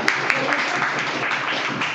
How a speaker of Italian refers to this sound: No, no, no, fai benissimo, applausi di nuovo.